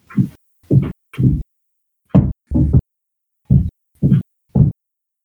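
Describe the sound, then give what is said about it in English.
About eight heavy, thudding footsteps at an unhurried walking pace, distinct, each a dull low thump with brief silence between, and no voices. “Wait, do you guys hear footsteps?”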